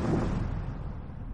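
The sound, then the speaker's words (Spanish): A deep, muffled explosion booms in the sky to the left, amid a formation of Fortress bombers, like a flak burst, then trails off into a heavy low rumble that lingers for the rest of the moment. No voices are heard. “Se producen explosiones en el cielo. Se produce una explosión a mi izquierda.”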